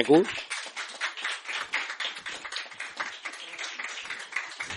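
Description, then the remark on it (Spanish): A burst of audience applause at an evening event in Valencia, welcoming a music group about to open the evening with a song, many hands clapping in a dense, steady patter at moderate volume, with a brief voice at the very start before the clapping fills the rest. “Un aplauso, por favor, para, para”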